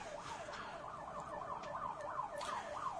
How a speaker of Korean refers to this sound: 가끔씩 이 앰뷸런스 소리를 오래 듣다 보면 날 데리러 온 것 같기도 하고 요단강을 건너가려고 아 앰뷸런스 소리가 들리니까